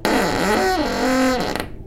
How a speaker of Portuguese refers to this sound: Destranquei a porta, girei a maçaneta e um rangido agudo invadiu meus ouvidos.